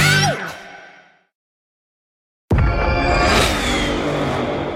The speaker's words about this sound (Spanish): Did you hear that? That's what an estimated 500 horsepower sounds like.